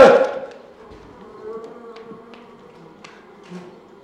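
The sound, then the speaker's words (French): A honeybee, not a wasp, buzzing in a classroom with a steady, wavering drone that swells and dips over a few seconds, starting with a brief louder burst and a few faint ticks along the way. “Elle bourdonne dans mes oreilles Non, c'est pas une guêpe, c'est une abeille Ce n'est pas une guêpe, c'est une abeille”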